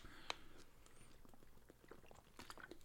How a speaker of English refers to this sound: Hey, hold on just a second. I'm going to take a sip of water, get refreshed here.